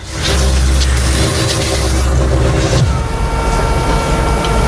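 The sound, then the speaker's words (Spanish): A London double-decker bus roars past, nearly running someone over, its heavy diesel engine rumbling loudly and steadily before the sound shifts and thins as it moves on. No one speaks. “Te he dicho que yo aparco bien, pues no, aparco tan bien, porque casi me atropella un autobús londinense de esos de dos pisos, ¿vale?”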